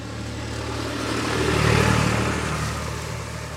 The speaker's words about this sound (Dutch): Oh, daar is weer een tractor die ons gaat omvergen. Even wachten.